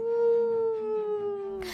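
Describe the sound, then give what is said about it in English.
Dogs howling in the next room in one long, sustained wail that slowly drops in pitch, moderately loud and steady, cut off at the end by a brief burst of noise. “My dogs were howling in the next room”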